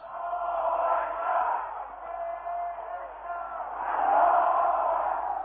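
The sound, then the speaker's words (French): A huge crowd roars and shouts continuously, a dense wall of many voices that swells louder toward the end, with no single speaker standing out; the crowd in Tehran in 1979 as Ayatollah Khomeini's Range Rover struggles to push through it. “dans ce mur de foule, la Range Rover de l'ayatollah Roménie cherchait à se frayer un chemin.”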